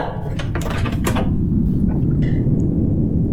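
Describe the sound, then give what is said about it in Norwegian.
The door of a prison inmate's room is handled and pushed shut: a quick cluster of knocks and clatters in the first second, over a steady low rumble that continues afterward. “Nå lukker vi døra.”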